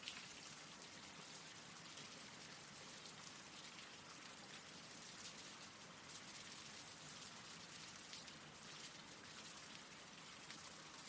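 Steady rain falls continuously, a dense, even hiss of drops pattering on a surface with no pauses or voices, holding a constant moderate loudness throughout.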